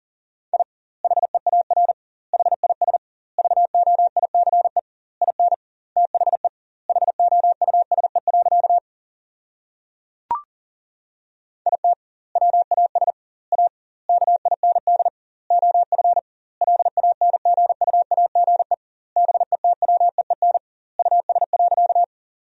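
A steady single-pitch Morse code tone keys on and off rapidly in quick dots and dashes at 40 words per minute, sending sentences of common English words with doubled word spacing, grouped into bursts with longer gaps between words, broken once by a brief click midway.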